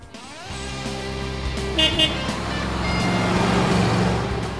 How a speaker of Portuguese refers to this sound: Olha a rodovia Presidente Dutra aí movimentada, chegando em São Paulo, já com algum congestionamento.